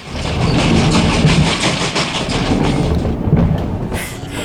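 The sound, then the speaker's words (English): Loud, steady rumble of a moving train heard from inside a carriage, deep low-end roar with a dense rushing noise and faint rhythmic rattling throughout, no voices. “He better be on this stupid train.”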